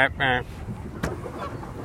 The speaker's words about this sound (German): hupt mich gerade eine Gans von rechts an. Hast du was gehört?